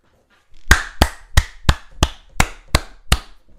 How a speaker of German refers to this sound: Wir müssen jetzt ganz kurz so einen kleinen Affen, der die ganze Zeit in seine Hände klatscht, einblenden. Äh, damit er die Zeit überbrennt.